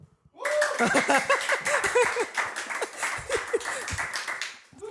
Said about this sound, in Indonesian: Tepuk tangan dong, weh, kru.